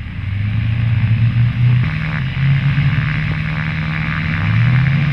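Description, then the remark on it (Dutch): A loud, rough piston engine drones, its low throbbing pitch rising and shifting slightly as a replica Vickers Vimy vintage biplane powers up for takeoff, with a constant wash of noise and no voices. “wat je hier hebt opgenomen is een replica. Er zijn geen vliegende Vickers Vimmies meer.”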